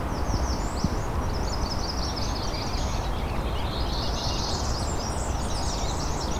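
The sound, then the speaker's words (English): A black-throated green warbler sings thin, high, buzzy phrases, with other faint chirps mixed in, all over a steady, loud wash of rustling background noise. No one speaks. “black-throated green warbler out there.”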